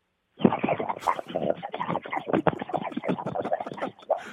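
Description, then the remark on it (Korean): A voice imitates boiling water as a final encore: a steady, bubbling stream of rapid wet pops and gurgles, fairly loud, running for about four seconds after a brief silence, with no talking. “자 마지막 앵콜로 물 끓는 소리로 끝내겠습니다.”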